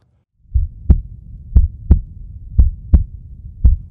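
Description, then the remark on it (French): A fast heartbeat sound effect: deep lub-dub thumps repeating in a steady rhythm over a low rumbling bed, with no voices. “Paul sent son petit cœur battre à toute allure.”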